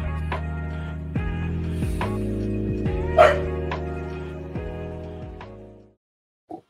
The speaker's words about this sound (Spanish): Y perdonen el perro me pasa que no es que. Está mi bombeado, perro, está bombeado mi perro. quiere, quiere atención y de vez en cuando hace eso.